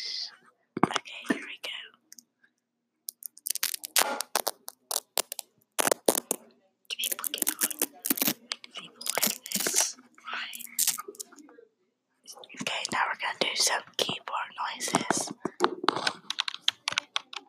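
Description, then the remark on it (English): Crackly tearing of Velcro strips being pulled apart for ASMR in several bursts, some short and some drawn out, separated by brief pauses, with soft clicking mixed in. “First, we're going to do Velcro, and then we're going to do some keyboard noises.”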